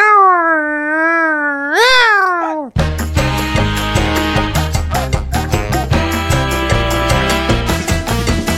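A loud cat meow, drawn out for a couple of seconds and rising in pitch at the end, followed immediately by upbeat music with a steady beat.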